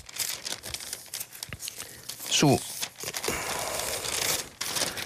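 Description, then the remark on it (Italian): Pages of today's newspaper rustle and crinkle as a man leafs through them looking for an article, with a crisp papery swish midway, while he talks over the handling. “Sul giornale di oggi c'è un interessante, sempre che lo, lo trovi perché poi se, eccolo qua, un, un interessante eh, approfondimento che fanno le pagine interne”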